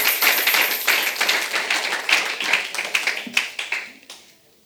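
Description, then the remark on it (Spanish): A crowd claps in a dense, rapid patter of many hands, loud and sustained, thinning into a few scattered claps before stopping near the end. “Y al sí, aplauda, hermano, aplauda, no le quito el impulso.”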